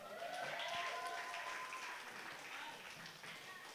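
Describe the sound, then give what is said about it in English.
A crowd claps steadily for several seconds, giving a hand to the Lord, a dense, sustained wash of applause with faint cheering voices mixed in, tapering off slightly toward the end. “Come on, give a hand to the Lord.”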